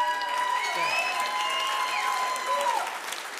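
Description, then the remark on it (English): A crowd claps steadily for Wayne in a dense, continuous wash of applause that holds at an even, fairly loud level for a few seconds, with faint whistle-like tones ringing through it. “Hey, can we get a round of applause for Wayne?”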